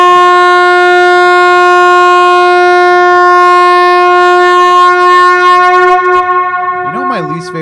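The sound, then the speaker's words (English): A loud, brassy air horn blares in one long unbroken blast for several seconds, then its pitch wobbles and bends just before it cuts off. “There's are not enough air horns.”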